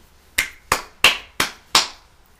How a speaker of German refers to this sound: Applaus für Gregory.